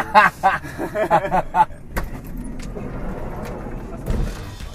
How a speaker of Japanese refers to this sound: 今バスがこう、まあ、横を通ってますが、はい、ここはどこですかこは柏です柏はい千葉県ですね